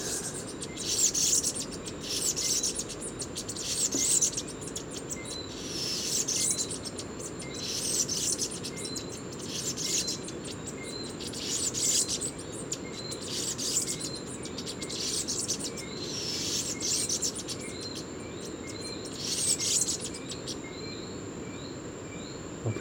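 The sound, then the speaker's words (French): A male songbird sings from the top of a tree about 5-6 metres overhead, repeating short, bright phrases every two to three seconds over a steady, high insect drone and a soft outdoor hum. “ce mâle est très enthousiaste. Et l'oiseau chante au sommet d'un arbre, à 5-6 mètres au-dessus de moi.”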